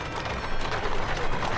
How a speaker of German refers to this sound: Pferdehufe trappeln über das Kopfsteinpflaster. Eng getaktet transportieren Kutschen ihre Fahrgäste über den mit Menschen gefüllten zentralen Platz.